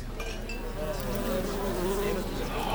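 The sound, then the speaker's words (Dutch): A wasp that has got inside buzzes steadily indoors, its drone wavering in pitch as it darts around, with no talking. “Ah, er is er eentje binnengeraakt.”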